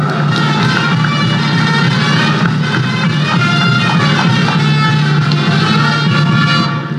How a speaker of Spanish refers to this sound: Quiero que se paren, por favor, los dos. Aplausos para nuestros congresistas también de orígenes contumacinos en esta mañana en nuestra Plaza de Armas de Contumazá.